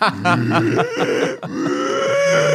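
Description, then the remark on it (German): Baboons grunt loudly in the background in a rapid series of throaty, pulsing calls, with a longer drawn-out groan near the end. “Im Hintergrund immer so laut die Tiere.”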